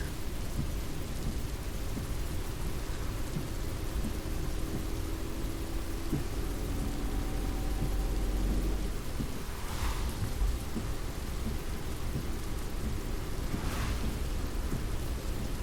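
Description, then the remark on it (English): Heavy rain pours steadily in a dense, constant hiss, with a deep roll of thunder rumbling underneath midway through and a couple of brief louder surges afterward. No voices. “I never get though is why people drive so fast when the rain is falling so hard and you can't even see far.”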